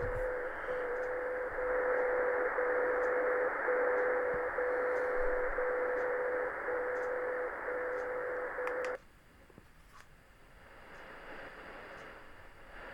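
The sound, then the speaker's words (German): Shortwave radio in sideband mode: a steady band of hissy static with a faint warbling tone, lasting about nine seconds before cutting off abruptly to a quieter background hiss. No talking. “Kann man dann im Seitenbandbetrieb hören.”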